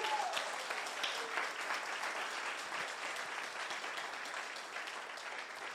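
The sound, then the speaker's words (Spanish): Sustained applause from a church audience clapping for God, a dense, steady wash of many hands clapping for several seconds at an even loudness, with no voices standing out above it. “Pero dele un aplauso a Dios como si lo creyera.”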